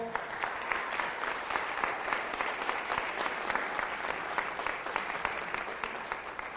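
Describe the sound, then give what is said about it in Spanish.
An audience applauds steadily, many hands clapping in a dense, even patter that holds at a consistent level throughout without rising or fading. “Un aplauso, por favor.”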